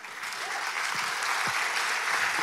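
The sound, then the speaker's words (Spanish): Steady applause from a church audience giving themselves a hand, a dense wash of many hands clapping at an even, sustained level for the whole stretch, with no voices standing out. “Dese un aplauso.”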